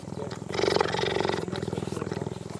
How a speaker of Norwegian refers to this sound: Og nå lurer du kanskje på hva denne duringen er? Jo, Robert Eklund han er stadig på jakt etter nye innpustlyder. Og dette er en gepard som maler både på utpust og på innpust.